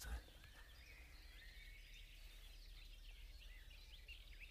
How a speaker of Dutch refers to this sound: Maar ondertussen lopen, staan we in een omgeving waar vogeltjes twinkelieren. Heerlijk, hè?